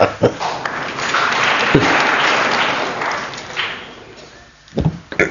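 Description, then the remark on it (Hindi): An audience at a spiritual discourse claps steadily for several seconds, a dense wash of applause that swells and then thins out, with a few sharper individual claps near the end. “हाँ, प्रभु हम तुम्हारे साथ है ना है ना है ना ताली ले मजा”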